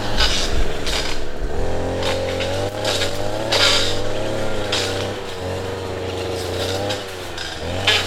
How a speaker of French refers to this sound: Euh, son seul euh, débroussailleuse de loin.